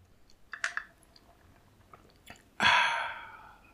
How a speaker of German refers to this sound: Aber anstattdessen nimmst du einfach einen Schluck von deinem Getränk.